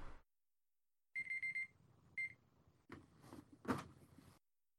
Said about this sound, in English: Apparently I had set my alarm for 4:30 by accident.